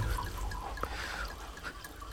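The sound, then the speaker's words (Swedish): Beer is poured steadily into a second glass, a continuous splashing and gurgling that runs the full length with a few brighter drips; no one speaks. The beer is from the same year but from the new barrel. “Det vi häller upp i det här andra glaset så, som ni hör också, det är då samma år, men i den nya tunnan som vi nu har då.”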